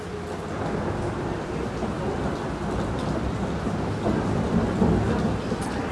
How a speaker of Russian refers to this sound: Слушаем гром.